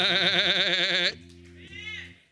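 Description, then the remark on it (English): A person imitates a sheep with a loud, wavering bleat lasting about a second, followed by a lower, steadier nasal vocal tone that trails off. “get your sheep teeth out, and go out in the world and say, amongst all them wolves”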